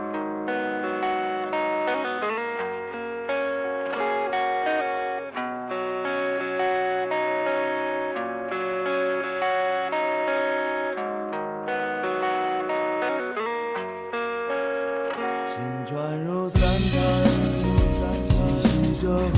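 A rock song plays with sustained, effects-laden guitar chords and steady harmonic layers, then bursts into a loud, dense, distorted full-band section near the end. No voices are heard.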